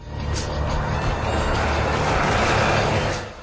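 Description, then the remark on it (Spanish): A jeep driving along a winding dirt path across an arid desert plain, raising a cloud of dust: a steady, loud low engine rumble mixed with a continuous gritty hiss of tires on loose ground, unbroken for the whole stretch, with no voices. “Un sendero sinuoso surca una planicie árida del desierto. El chip de Sharon lo recorre levantando una polvareda a su paso.”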